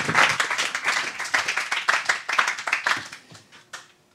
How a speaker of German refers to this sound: Ich möchte euch um einen tosenden Applaus für meine drei Talkgäste von heute Abend bitten.